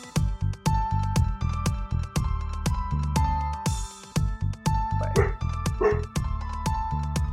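A dog barks over and over in a quick, steady rhythm, loud, with a droning tonal background running underneath the whole time.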